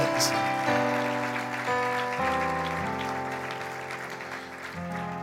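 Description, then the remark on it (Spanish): An audience applauds steadily for several seconds, the clapping a continuous patter over sustained keyboard chords that shift in pitch every second or so. “Se aplaudir, aplaude.”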